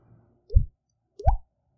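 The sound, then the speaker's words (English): Two hollow, resonant pops made by flicking a cheek, about 0.7 seconds apart, each with a quick upward pitch bend like a watery plop. They imitate the Red Sea going back, done like Cameron from Ferris Bueller's Day Off. Fairly loud, with no talking. “That was me flicking my cheek like Cameron from Ferris Bueller's Day yeah.”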